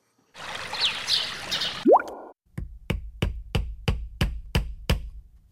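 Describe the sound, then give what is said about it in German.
A brief whirring drill burst ends with a rising whine, then about nine steady, evenly spaced hammer blows ring out as a Van Gogh painting is hung on the wall above a sofa. “So klingt es, wenn Sie Ihren Van Gogh über dem Sofa aufhängen.”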